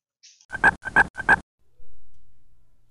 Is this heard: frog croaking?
yes